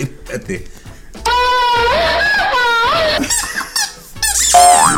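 A squeaky dog toy squeezed repeatedly, giving loud, wavering high-pitched squeals in several long bursts after a moment of quiet chatter at the start.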